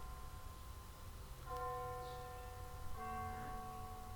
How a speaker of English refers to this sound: So, hear the bells?